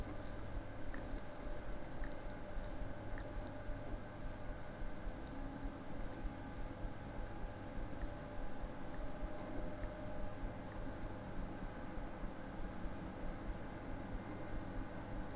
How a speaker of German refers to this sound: So, MP3. Und drücken jetzt einfach nur die Eingabetaste und dann macht das Programm alleine. Und ihr wird gleich hören, wie mein Lüfter anfängt zu arbeiten. So, jetzt fängt er an zu wandeln. Gleich müsstet ihr meinen Lüfter hören.